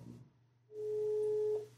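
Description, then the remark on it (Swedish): A single steady electronic phone ringing tone sounds during a call, a clear pure beep lasting just under a second over a faint low hum, with no one talking. “Nu ringer det like a motherfucker.”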